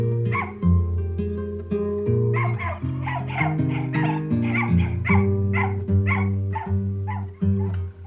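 A dog yips and whimpers in a string of short, high cries over a steady musical backing, the yelps coming every half second or so, fairly loud.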